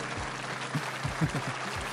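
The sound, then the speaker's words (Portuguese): A burst of canned applause, a dense crackling wash of clapping at steady moderate loudness for a couple of seconds, with faint murmurs underneath. “A tua explicação é boa e por isso mereces um, um aplauso.”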